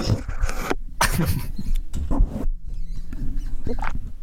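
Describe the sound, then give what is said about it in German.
Muffled swallowing picked up by a microphone pressed against the throat: several scratchy, rubbing bursts with short gaps between them, and no one speaking. “Du kannst dein Mikrofon so, ähm, so an deinen Hals ranmachen und dann hört man das vielleicht.”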